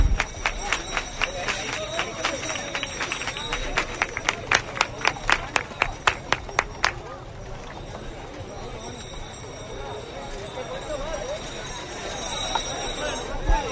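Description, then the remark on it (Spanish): A crowd claps palmas for Huelva in a steady, rhythmic beat of sharp, bright claps for several seconds, then the clapping stops and a busy murmur of voices and crowd noise carries on. “Estas palmas por Huelva.”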